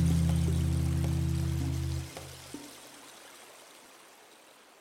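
A low, humming drone fades out after about two seconds, leaving a soft, steady rush of a mountain stream at the source of the Magdalena River, in the Páramo de las Papas, Colombia, flowing continuously in the background, faint and even with no voices.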